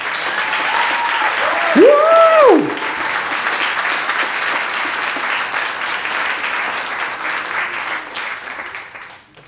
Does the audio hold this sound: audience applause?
yes